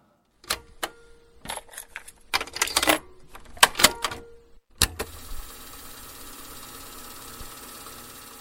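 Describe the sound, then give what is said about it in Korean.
A cassette player fast-forwarding a tape: a run of plastic clicks and clacks as the tape is loaded and buttons are pressed, then a steady, even whirring drone of the tape winding quickly. “카세트에 테임 넣고 빠르게 감는 소리예요.”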